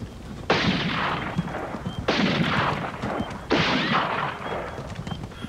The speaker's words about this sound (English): Then McKenna saw the three men on a wooden bridge. One of them stood and fired at the buckboard as McKenna and Steuben closed in.